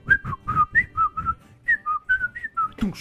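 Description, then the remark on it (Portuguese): A person whistles a quick run of short, shrill blasts in a bouncy rhythm, imitating a samba band leader's whistle, fairly loud, ending with a brief breathy noise. “Nem sei, nem, nem consigo assobiar.”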